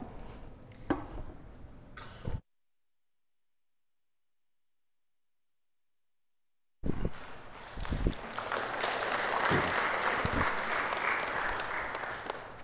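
An audience breaks into applause after a stretch of silence: many hands clapping together in a dense, steady wash that holds at a fairly loud level until the end, preceded by scattered murmurs and shuffling.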